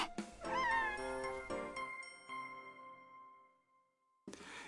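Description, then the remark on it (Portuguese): A cat in a cat café lets out one drawn-out, wavering meow, its tone rising then sliding down before fading into quiet, followed by a brief rustle at the very end. “本当に可愛いねおいでおいで私はこの子が好き私はこの猫が好きです”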